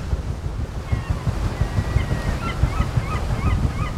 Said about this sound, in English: And listen, down there, you can hear the paddles just thrashing through the water there's a sound that is so rare to hear today, and you get it here out on the sea on the Waverley.